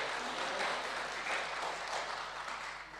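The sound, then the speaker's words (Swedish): An audience applauds the speaker during a poetry reading, steadily for about three seconds, a dense, even wash of clapping hands that stays at a constant level throughout, with no voices standing out. “Ja, titta, nu fick jag ju applåder.”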